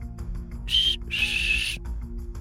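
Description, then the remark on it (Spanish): Two soft, breathy whistled notes, the first short and the second longer and wavering, made by a person's mouth imitating an eerie whistle over a low steady hum, with no talking. “Lo tengo que hacer así para que quede claro la tonalidad, eh, la musicalidad del silbido.”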